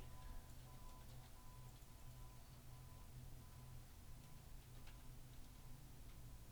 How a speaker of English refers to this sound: Whoever's listening, you, you can't see the action, but I can. And I gotta tell you, those mouse clicks are appropriate.